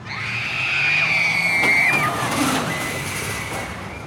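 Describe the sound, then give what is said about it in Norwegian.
Drawn-out screams from riders on the Speed Monster roller coaster at the Tusenfryd amusement park in Norway rise and fall over a steady rushing, splashing background noise, with a second shorter wail near the end. “Jeg hører hylingen allerede.”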